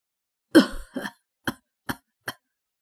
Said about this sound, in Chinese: 不知翻开了第几个酒坛子，我终于听见了一个熟悉的咳嗽声音。